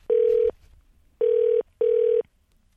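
An outgoing phone call from a radio show to a listener rings: three loud, steady electronic ringback tones, each about half a second, the first followed by a longer pause and the last two close together, with no voices.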